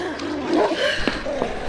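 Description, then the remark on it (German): A huge three-headed dog guarding a trapdoor snarls and roars, a loud, rough, continuous growl with a couple of sharper bursts near the end. “zähnefletschende Hund(e)”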